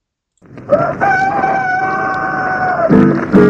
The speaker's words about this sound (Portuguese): A gente pensa que ao romper do dia o galo canta pra saudar o sol. Mas quando canta o galo diz somente se eu tivesse dente, só usava eucalol.